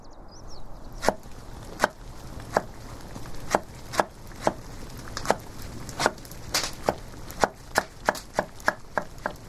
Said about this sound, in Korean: 도마질 소리는 언제 들어도 편안하다. 이 북소리가 심장 박동 소리를 닮았다고 하는데 도마질 소리도 잘 들어보면 심장 소리를 닮았다. 하긴 저렇게 준비한 식사로 온 가족의 심장을 뛰게 하니 심장 소리를 닮았다 해도 무리는 없을 터.